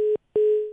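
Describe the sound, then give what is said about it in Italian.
A steady mid-pitched telephone tone sounds, breaks off for a brief silence, then resumes and holds, fading slightly: a radio listener's call-in line drops and gives way to a dial tone. No one speaks. “Niente, è caduta la linea, non era pronto, allora sapete che facciamo?”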